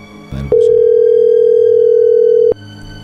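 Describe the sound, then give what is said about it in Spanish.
A phone line rings on an outgoing call as the number is redialed: one steady, two-second ringback tone, loud and clear, with low background noise before and after and no one speaking. “A ver, ahí se está marcando de nuevo.”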